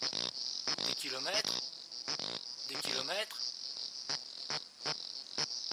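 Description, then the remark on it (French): A steady, high insect drone runs throughout, overlaid by repeated rasping pulses and two bursts of warbling, croak-like calls from cicadas of a new genus and species in the Kenyan steppe, fairly loud, with no one speaking. “voir, mais que c'était des cigales qui étaient de genre et d'espèces nouvelles.”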